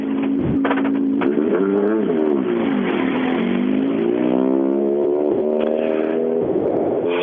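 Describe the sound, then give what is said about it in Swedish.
A rear-wheel-drive race car engine drones steadily and loudly for several seconds, its buzzing pitch climbing, dipping and climbing again as the revs change, with no voices. “Ja, eh, första bakhjulsdrivna bil”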